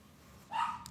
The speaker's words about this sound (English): Oh, that dog hates the Amazon truck.